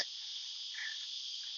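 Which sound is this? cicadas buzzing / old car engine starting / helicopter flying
cicadas buzzing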